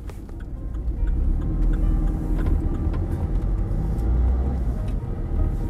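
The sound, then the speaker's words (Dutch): A car drives along the road back to Antwerp, heading toward the Falconplein in the schipperskwartier. There is a steady, loud low rumble of engine and tyres, a continuous drone with faint higher clicks and ticks over it, and no one talking. “Nou, We rijden terug naar Antwerpen.”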